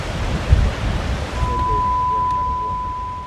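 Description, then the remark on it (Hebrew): Steady seaside ambience at Givul Beach between Bat Yam and Jaffa, with the constant rushing wash of waves and wind, joined partway through by a faint, thin sustained tone. “לפני שבועיים בערך פגשתי בחוף הגבול בת ים יפו”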